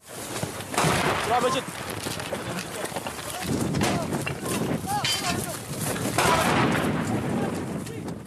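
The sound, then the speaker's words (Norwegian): Repeated gunfire crackles in uneven bursts of sharp reports amid a loud, dense din of combat, with men's voices shouting throughout: Syrian government army soldiers fighting IS in Syria. “Vi hører lyden av syriske soldater fra regjeringshæren i kamp mot IS.”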